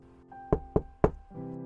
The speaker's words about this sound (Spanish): Pasaron un par de horas y alguien tocó a la puerta.